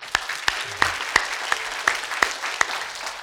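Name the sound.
audience applauding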